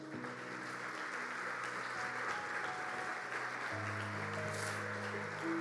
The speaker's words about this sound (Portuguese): Antes de você assentar, por favor, aplauda o nosso Deus.